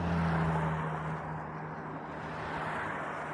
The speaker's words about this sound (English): a lot of cars on this road.